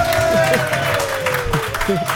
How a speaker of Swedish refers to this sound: En stor applåd